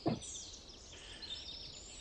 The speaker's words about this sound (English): Plenty of birds to go around.